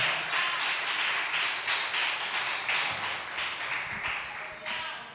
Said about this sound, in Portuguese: Aplaudo o Senhor.